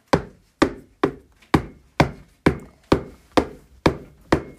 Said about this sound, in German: jetzt nahm Nina ein Buch in die Hand und klopfte dort mit einem Stein drauf